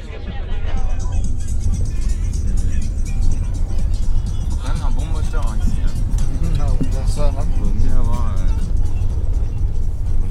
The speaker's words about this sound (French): On est à Lisbonne euh, à l'instant même en voiture